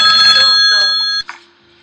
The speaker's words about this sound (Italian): un'altra telefonata, vediamo chi mi telefona.